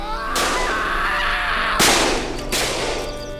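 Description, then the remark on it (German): Three loud gunshots in a courtyard crack out at uneven intervals, each sharp blast trailing off into a reverberant echo that fills the gaps between them. “nachdem die Schüsse vorbei waren und die Juden damit begannen, ihre Brüder auf Schubkarren zu laden.”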